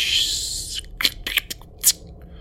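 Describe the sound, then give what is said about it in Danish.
A puzzle box part scrapes as it slides in to become part of the puzzle's door, a steady gritty rasp for most of a second, followed by several short, sharp scraping clicks at irregular intervals. “den går nu ind, i, ind, ind og bliver en del af, af døren i, ligesom den anden.”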